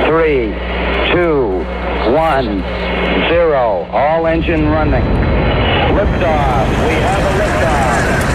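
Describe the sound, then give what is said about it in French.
The Saturn V rocket of Apollo 17 lifts off its launch pad at Cape Canaveral on 7 December 1972 in a great cloud of smoke, with a loud, steady, deep roar that rumbles throughout, while a voice talks over it with rising and falling tones for the first few seconds. “Vous entendez la puissante fusée Saturne 5 qui s'arrache du pas de tir dans un grand nuage de fumée.”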